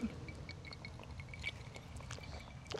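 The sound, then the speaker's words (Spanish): A drink is poured into a glass, a steady stream of liquid running for a few seconds with a faint bright ringing, and no one speaking. “Estamos chupando a gusto. Estamos chupando tranquilos.”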